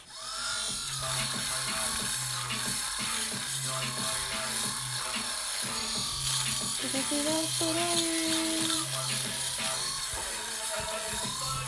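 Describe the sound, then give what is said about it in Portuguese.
A fabric shaver removes pills from winter clothing such as coats and sweaters with a steady, continuous electric buzz that holds for the whole stretch, with soft melodic music playing underneath. “é tirar borbotos. Sabem? Aquelas bolinhas que ficam na, na roupa tipo de inverno, nos casacos, camisolas e etc.”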